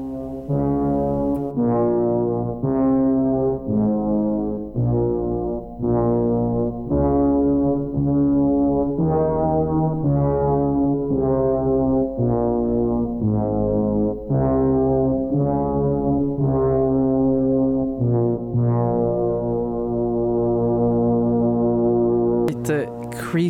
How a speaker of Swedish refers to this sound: Men vi kan höra lite på eh, huvudtemat här från The Shining.